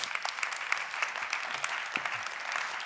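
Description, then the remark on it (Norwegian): Soft, steady applause from an audience welcoming the team that will plant a church, IMI Sørlandet, a dense patter of many hands clapping at low volume with no voices over it. “Det var en veldig forsiktig klapp, tatt i betraktning at de har tenkt å reise ut for å plante menighet.”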